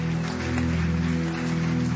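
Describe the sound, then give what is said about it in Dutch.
An audience at a church baptism applauds those being baptized, a steady, dense wash of clapping that holds for the whole two seconds over a sustained low, droning musical tone. No one speaks. “Can we just give a great big hand for all those getting baptized right now?”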